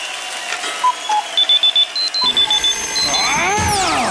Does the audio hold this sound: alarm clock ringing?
yes